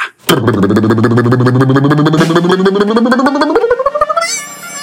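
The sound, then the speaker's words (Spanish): A rapid, steady snare drum roll that climbs in pitch for about four seconds and then breaks into a bright, shimmering crash, played to lead into revealing the fake story of the day. No one speaks. “Dame el redoblante de tremenda vaina.”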